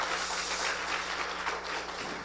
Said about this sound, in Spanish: Dele la honra y la gloria al Señor Jesús. Dele un fuerte aplauso a Él.